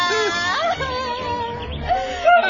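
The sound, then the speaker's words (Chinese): An eagle calls with a string of rising and falling cries, each a sliding, tonal screech, loud and continuous for a couple of seconds with no talking, as it snatches away a chick. “老鹰丢走了”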